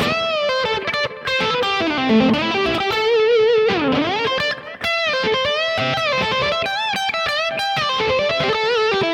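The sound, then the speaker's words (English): A distorted electric guitar plays a solo phrase in the fourth position at the 12th fret (12 15, 12 15, 12 14, 12 14, 13 15, then 12 15), with bent notes, vibrato and a swooping dip in pitch, loud and sustained with no talking. “I'm going to play 12 15, 12 15, 12 14, 12 14, 13 15, and then 12 15.”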